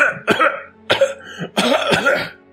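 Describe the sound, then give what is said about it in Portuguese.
A very ill woman coughs in a short, harsh fit of about four rough bursts, the last two running together into a longer, raspy hacking spell, spattering blood onto her hand, with no talking. “E vocês veem sangue respingar na, na mão dela quando ela tá tossindo.”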